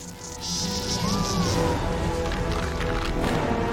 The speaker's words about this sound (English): bug swarms are coming down. It's like giant mosquitoes.